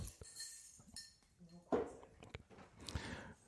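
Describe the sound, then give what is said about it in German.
Glass clinks and bottle handling sounds as a bottle is opened for another person, a few sharp bright taps and a brief hiss-like burst near the middle, with some background murmur. “Ich mach dir auch gleich mal eins auf, ja?”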